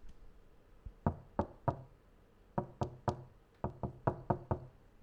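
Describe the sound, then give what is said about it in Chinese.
Sharp, bright taps on a glass tabletop, about a dozen in all, coming in quick uneven bursts of three, three, then five, each crisp and ringing slightly. No talking. “我这桌子是玻璃的。”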